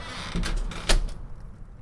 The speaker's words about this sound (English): She shut the door.